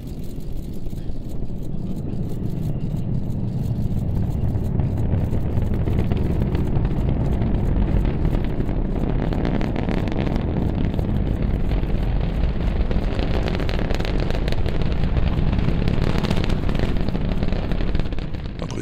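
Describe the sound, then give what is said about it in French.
The launch roar of a Falcon Heavy rocket, recorded binaurally and arriving a handful of seconds after liftoff, fills the whole stretch: a steady, loud, deep rumble with crackling bursts running through it, heard on its own with no one talking. “Là, elle a déjà quitté la Terre depuis une poignée de secondes, la fusée, mais le son du décollage arrive juste maintenant, écoute.”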